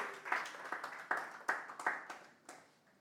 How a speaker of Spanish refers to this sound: Un fuerte aplauso, mi hermano, para ella. Gloria a Dios.